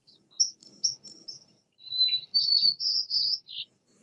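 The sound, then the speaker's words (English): A white-crowned sparrow's song of bright, high-pitched notes and short trills, repeated in quick phrases over about four seconds, clear with no talking. “So in the white crowned sparrow, it, I'll play this again, but, but what I want you to do is to listen to specific elements of that song.”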